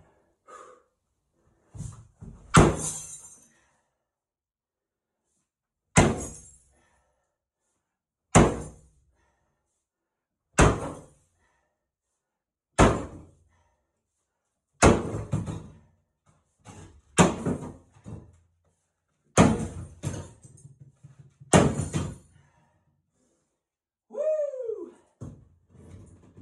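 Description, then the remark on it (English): A big hammer repeatedly smashes a bathtub to get the tub out: about a dozen loud, sharp, booming impacts at roughly regular intervals, some with ringing crackle, followed at the end by a brief rising-falling vocal sound. “the only way the tub's getting out of here. Right here, right now. Go right out of the way. Oh, big hammer, big hammer.”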